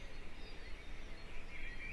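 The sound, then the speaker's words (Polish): Faint birdsong drifts over a steady outdoor hiss in the early morning, before sunrise, with a couple of thin high chirps near the end and no voices. “Ptaszki śpiewają.”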